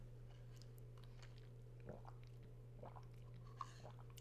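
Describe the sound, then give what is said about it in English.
Quiet swallowing of a drink of soda: a few soft, wet gulps spaced about a second apart over a low steady hum, with no talking. “That's some good gulping ASMR.”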